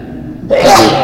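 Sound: sneeze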